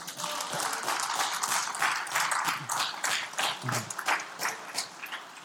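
An audience claps together in sustained applause, a dense crackle of many hands filling the room for several seconds, with a few faint voices and cheers mixed underneath.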